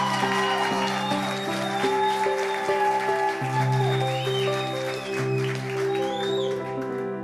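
Steady audience applause as the audience is asked to clap loudly for invited women speakers, a dense crackle of many hands clapping together for several seconds while sustained musical tones play loudly over it.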